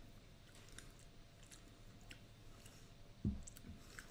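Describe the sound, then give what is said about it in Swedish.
Chewing of slightly crunchy, chewy raw chocolate with berries: soft, irregular mouth sounds with quiet clicks throughout, and one sharper bite near the end. Nobody speaks. “Det är det som är så bra med en råchoklad. Mm. Är att den är lite mer tuggig för man får inte hetta upp det så mycket utan det får inte gå över 40 grader i tillverkningen.”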